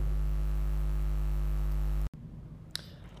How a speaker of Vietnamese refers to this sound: xin lỗi mọi người về sự bất tiện này. Khi mình thu xong mình phát hiện ra là mic mình bị rè